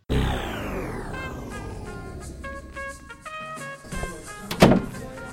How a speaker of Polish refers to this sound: Zamknęliśmy drzwi.